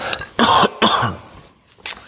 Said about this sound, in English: Pardon me, I'm gonna cough again